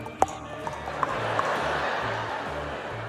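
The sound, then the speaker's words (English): A few sharp hoof clops ring out at an uneven pace, standing out from a steady wash of background noise and a low, pulsing rumble. “And then 10 seconds later, the horse is like, I'm gonna run towards the baby incubators and smash him with my hooves.”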